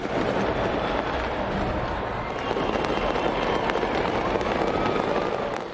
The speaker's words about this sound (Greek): Νωρίτερα η Νέα Ζηλανδία υποδέχτηκε το 2023 με πυροτεχνήματα από το Sky Tower στο κέντρο του Όκλαντ.